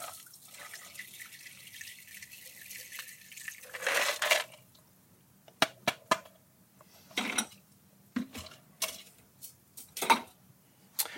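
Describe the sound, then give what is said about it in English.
A South Side cocktail is double strained into a cocktail glass: a steady hissing pour for about four seconds, then a scattered series of sharp drips and light clinks trailing off. No one speaks. “And now we need to strain the cocktail into our cocktail glass. And we like to double strain our cocktails.”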